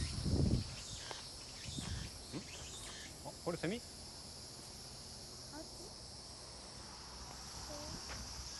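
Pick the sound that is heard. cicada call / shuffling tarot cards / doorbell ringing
cicada call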